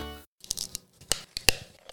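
A plastic water bottle cap being twisted off, a series of sharp crackling clicks and crinkles in irregular bursts, after a brief held tone at the start; no one speaks.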